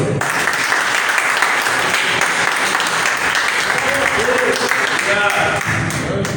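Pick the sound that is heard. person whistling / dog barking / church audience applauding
church audience applauding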